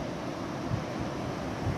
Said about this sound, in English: just watching as the waves come in.